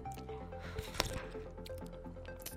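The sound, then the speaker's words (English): A quiet sip of hot coffee, with a brief wet slurp in the middle and soft liquid movement around it, over faint background hum and no talking. “So, speaking of lubricant, let's have a sip of coffee.”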